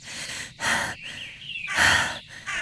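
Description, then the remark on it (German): Heavy, labored panting from a woman who has just climbed up to a mountain ridge at nightfall, with several loud breaths in and out in an uneven rhythm and brief pauses between them, no speech. “Schwer keuchend langte Megan nach Chris auf der Berggruppe an”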